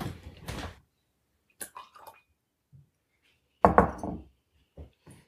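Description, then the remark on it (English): A drop of water is added to a glass of whisky, splashing and dripping in a few short bursts with brief pauses between them, along with faint glassy clinks. No one speaks. “Should we try this with a drop of water?”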